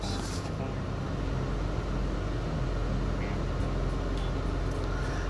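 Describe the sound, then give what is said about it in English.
A truck engine runs loud, a thick, steady low rumble with a constant mechanical drone that holds evenly throughout, with no talking over it, as the gas pedal is pressed to rebuild air pressure after the tractor and trailer air supply valves are pressed in. “And then you're going to rebuild your air pressure back up by hitting the gas pedal, probably up to about 10 RPMs.”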